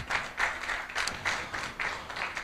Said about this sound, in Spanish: Ponte de pie. Dale un aplauso a Dios, hermano.